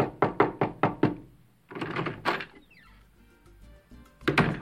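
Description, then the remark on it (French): Five quick, firm knocks by a police officer on a hotel room door in Varadero, Cuba, at 5 a.m., in an even rhythm, loud, followed by softer shuffling and a door-like rustle, then a final burst of movement. “Un matin, à 5 heures pétantes, un policier frappe à la porte de sa chambre dans un hôtel de Varadero, sur la côte nord de l'île.”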